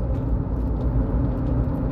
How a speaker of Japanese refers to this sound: 今ちょっとね車の中での収録となっているんですけども